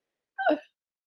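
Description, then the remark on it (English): One short sneeze bursts out, a quick breathy explosion lasting only a moment, with silence on either side and no talking. “Oh, bless you.”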